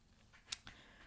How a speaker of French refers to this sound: Ensuite, euh, alors désolé, vous entendez peut-être mon chat gratter à la porte. Je suis euh, chez ma mère pour les vacances. Donc euh, voilà, si vous entendez derrière, c'est mon chat qui gratte à la porte